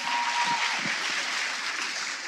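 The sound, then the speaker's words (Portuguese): A crowd at a Christian ministry gathering applauds steadily, a dense wash of many hands clapping at an even level throughout, with no voices standing out above it. “Uma salva de palmas para esse povo bonito aí.”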